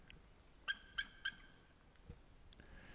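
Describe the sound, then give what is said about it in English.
An eagle calls to its mate with three quick, high-pitched piping notes in an even rhythm, followed by a fainter, thinner call a moment later, over quiet background; the mate flies over to meet it. “Oh, here comes another eagle he just called his mate to him, and the other eagle's flying over to meet greet him.”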